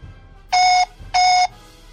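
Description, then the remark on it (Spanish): Two loud electronic beeps in quick succession, each a steady tone lasting about a third of a second, separated by a short pause over faint background hum: an accused person's answer of 'no' in a court trial. “Recuerde que un bip es sí, dos bits no.”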